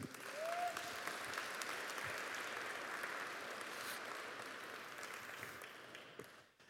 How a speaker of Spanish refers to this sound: Gracias. Dale un aplauso aquí a mi amigo.